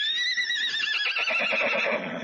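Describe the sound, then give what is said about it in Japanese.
A horse whinnies in a high, wavering cry while hooves pound rapidly underneath in a steady galloping rhythm as it is ridden off to the capital, fairly loud throughout. “誰か馬を走らせよ”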